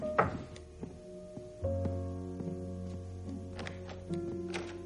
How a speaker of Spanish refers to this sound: Alguien llama a la puerta y Alan va a abrir. Son Ángela y Donna.